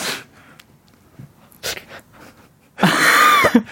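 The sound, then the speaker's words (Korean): A voice mimics a sneeze building up: a few short sniffing breaths, then a loud, drawn-out rising vocal strain near the end, alone with no other sound. “재채기가 나올 것 같은 목소리를, 아, 요거는 잘하실 것 같습니다.”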